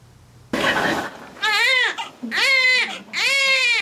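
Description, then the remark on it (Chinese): A newborn baby cries loudly in three high, wavering wails, each rising and then falling, with a short rough, breathy burst just before the first one. “婴拄出世就安尼骂骂大声吼，好久好忝，就随倒落一困。”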